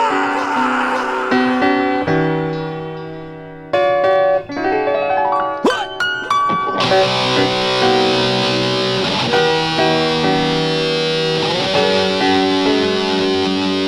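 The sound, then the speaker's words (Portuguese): A loud, distorted electric guitar riff with sustained, harmonically rich chords and sliding bends, turning denser and buzzier about halfway through and continuing without voices. “Agora, prepara a tua guitarra, maninho. E dá-lhe uma puxada daquelas violentas.”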